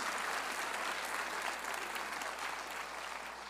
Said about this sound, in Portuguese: aplauda mais forte o Senhor Jesus